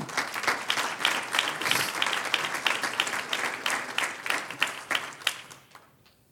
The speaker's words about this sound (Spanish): ¿Cuánto lo creen? Un aplauso al Señor.